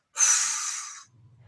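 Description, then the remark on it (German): During a breathing exercise, as the hands float down toward the floor, one loud, forceful breath out starting with a sharp "pf" puff, a breathy hiss lasting about a second that fades slightly before stopping abruptly, followed by a faint low hum. “Und dann atmen wir. Und zwar so laut, wie mit so einem Pf, ne, so Ich beschreibe immer, die Hände schweben zum Boden wie das Flugzeug, das landet.”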